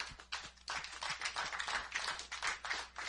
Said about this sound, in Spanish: Los hombres, vamos a darle un aplauso a las mujeres hoy día. Todos los hombres, un aplauso.